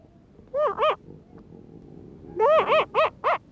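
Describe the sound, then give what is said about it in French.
A very young elephant seal pup grumbles in short, nasal, rising bleats: two close together, a pause, then a quick run of five, loud over faint background noise. “Et il râle pas mal quand. Euh, il a l'air d'avoir faim.”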